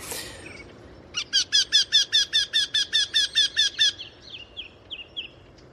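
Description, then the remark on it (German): Eurasian wryneck call: a fast, evenly spaced run of about a dozen loud, nasal, squeaky notes, followed by a few softer, scattered notes trailing off, with no talking. “der Wendehals.”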